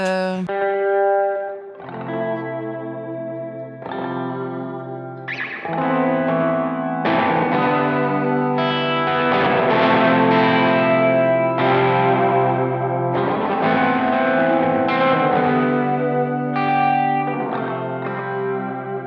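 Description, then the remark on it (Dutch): Detuned electric guitar played through an octaver and heavy distortion, chorus and echo, playing sustained, slightly out-of-tune chords that swell and shift over about nineteen seconds. It is loud, with no voices. “Eh, lekker ontstemd.”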